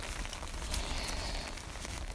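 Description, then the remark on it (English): Steady rain falls with a dense, even hiss, scattered with a few sharper drips and patters. It sounds continuous, with no voices. “Uh, it's actually really nice to have a few days of rain following a few days of blazing hot sunshine.”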